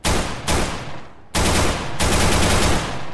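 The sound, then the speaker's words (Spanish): Loud bursts of rapid automatic gunfire from a video game, several sharp volleys starting abruptly one after another, with a brief lull in the middle and no voices. “Al recargar un arma, inclusive por los mismos disparos.”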